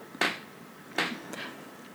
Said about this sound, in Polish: Znowu skrzypią nam nad głową. Ale pewnie już jesteście z nimi zaprzyjaźnieni.